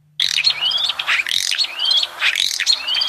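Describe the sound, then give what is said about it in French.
A common starling's alarm call: harsh, grating bird calls mixed with sharp chirps, repeated in three loud bursts with brief dips between, no voices present. “C'est cri d'alerte d'un étourneau.”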